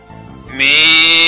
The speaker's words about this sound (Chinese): 咩咩，山羊咩咩叫